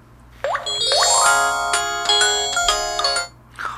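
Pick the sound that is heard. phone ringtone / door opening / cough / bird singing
phone ringtone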